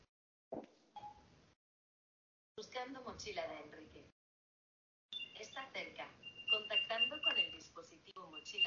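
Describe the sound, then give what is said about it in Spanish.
An item tracker, set ringing by asking Siri to find a backpack, rings with a high, steady electronic tone that pulses in short beeps, continuing under people talking over it. “A través de Siri lo hace, lo que pasa es que Siri solamente hace que suene.”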